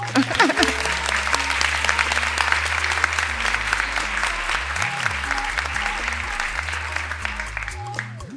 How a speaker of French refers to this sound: Merci beaucoup. Vous pouvez vous applaudir aussi.